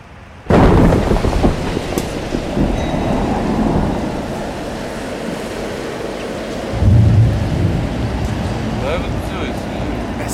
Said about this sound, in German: ist ein starker Taifun, richtig? Ja. Dieser Ort ist auch nicht der beste. Der Wind ist hier noch stärker als bei der anderen Stelle.